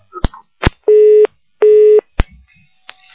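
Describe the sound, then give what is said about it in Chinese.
A phone line busy tone from a listener's internet phone call that did not connect and was not hung up properly: two loud, steady, buzzy mid-pitched beeps of equal length with a short pause between, surrounded by several sharp clicks and no talking. “哎，你的电话没打通，没挂好，所以喂。”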